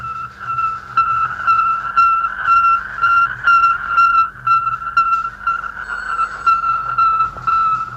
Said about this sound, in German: Äh, es handelt sich um Zeichen, die in äh, etwa 0,3 Sekunden regelmäßigem Abstand äh, auf, äh, gehört worden sind. Ja. Aber jetzt sollte man tatsächlich diese Signale aus dem Weltenraum einmal hören.